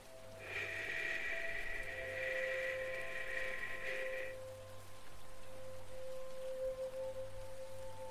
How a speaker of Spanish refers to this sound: Si te has parado un momento mientras caminas por un bosque, te darás cuenta que es un ruido muy similar al que hace un arroyo. El arroyo está circulando constantemente, sin cesar, sin un ritmo